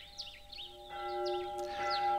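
Church bells ring out for a wedding with sustained, overlapping tones that swell in after a moment and keep resonating, while birds chirp and twitter in the background.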